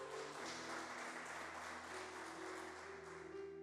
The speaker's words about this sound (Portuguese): Aleluia. Vamos aplaudir Jesus, gente? Uh!